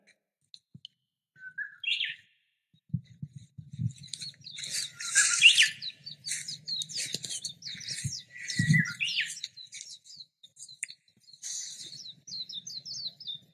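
Birdsong recorded from a balcony at 1431 Huaihai Middle Road at the end of a rainstorm: busy, overlapping high chirps and trills from several birds, steady throughout, with soft low rumbling bursts underneath and no voices.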